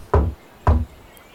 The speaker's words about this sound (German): Ah, öffnen wir mal die Tür. Öffnet keiner. Hallo! Mach mal auf. Nein, okay. Kommt aber einer, oder? Klopfen wir nochmal.